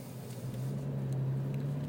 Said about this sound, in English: There's a dude riding a moped with no helmet.